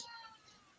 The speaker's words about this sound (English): Oh, okay, oh, that's my cat crying. I hear, you, I hear cat. That's that's little Blackie over there.